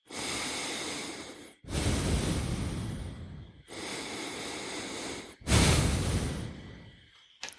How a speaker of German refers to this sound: Die Uhr kann atmen? Nee, die nicht, aber du mit der Uhr. Weil die Uhr kann dich jetzt dran erinnern zu atmen.